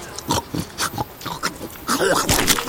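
A hedgehog zigzags along a dirt path, sniffing and snuffling noisily in all directions, a quick irregular run of short, breathy snorts and huffs that grow busier toward the end.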